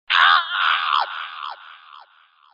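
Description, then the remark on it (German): A human voice mimics the scream of a raven hit by an arrow as it takes flight: one loud, harsh, raspy cry breaking into a few falling croaks that fade over about two seconds, alone. “Du legst den Pfeil auf die Sehne und der Rabe will in die Luft, aber du erwischst ihn im Flug. und Der schreit auf”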